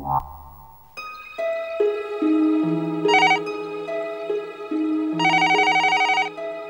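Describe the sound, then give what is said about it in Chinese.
A phone rings with a bright electronic ringtone: a steady melody of sustained synth notes stepping up and down, with two bursts of rapid trilling, heard alone with no voices. “雨生突然打电话给洪家。”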